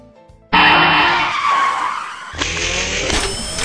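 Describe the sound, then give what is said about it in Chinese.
A loud, high-pitched screech of car tires skidding as a car brakes for someone crossing the road, starting abruptly and holding for about three seconds, with a deeper rumble and a sharper burst of squeal near the end as the car stops. “过马路也不看车，被撞了算谁的呀？”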